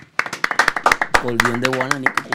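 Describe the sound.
Quick, irregular hand claps of applause ring out close by, with a voice speaking loudly over the claps through the second half.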